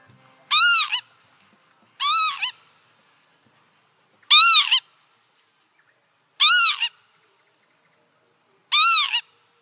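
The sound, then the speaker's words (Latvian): Northern lapwing calls: five clear, wheezy, slurred cries rising and falling, each about half a second, spaced roughly two seconds apart, fairly loud against a silent background. “aha, šī ir ķīvīte.”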